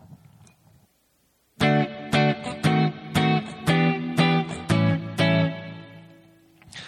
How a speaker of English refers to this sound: I'm simplifying the rhythm here just to make it kind of straight and easy uh, to follow. So, all right, uh, the chords here um, are D, D sharp diminished minor 7, and A7. D is the one chord, because uh, we're in the key of D.